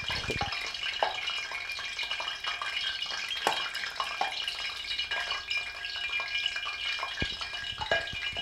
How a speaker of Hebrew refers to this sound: השמן. שפכת מים לתוך השמן? לא. כנראה שכן. כנראה שכן. תכף זה יירגע.